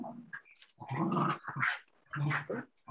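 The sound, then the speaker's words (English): A dog growls and snarls in three rough, throaty bursts separated by short pauses, the sounds loud and gravelly with no one speaking. “Is the dog biting you? Is he gnawing on your leg?”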